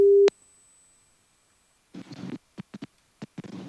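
A single short, steady, mid-pitched telephone busy-signal beep as a call fails to get through, followed by silence and then choppy talking broken up by network dropouts.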